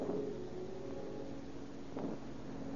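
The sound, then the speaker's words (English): A steady, low engine drone of an approaching car with a dragging bumper and a broken headlight, on a rainy New Year's afternoon in 1931, holding a fairly even level throughout with a soft rumble and a brief swell of noise near the end. “Then, late on a rainy New Year's afternoon in 1931, radio officers Heacock and Aiken are cruising through their district when an approaching car attracts their attention.”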